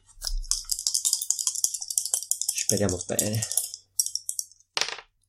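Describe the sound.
Two dice rattle in a rapid clatter of sharp clicks for a couple of seconds, a man briefly speaks, then two last clacks as the dice settle on a hard surface.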